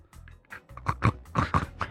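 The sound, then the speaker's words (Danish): A person imitates the cartoon pig Gurli Gris with a run of about five or six grunting oinks in quick, uneven succession, voiced and nasal, moderately loud. “Hvordan tror du, Gurli Gris vil lyde?”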